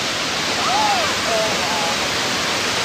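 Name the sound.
rushing waterfall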